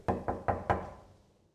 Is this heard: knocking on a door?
yes